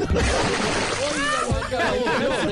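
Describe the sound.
A loud, messy splash and sloshing of water, like a body dropping into it, churning for a couple of seconds while voices carry on over the noise.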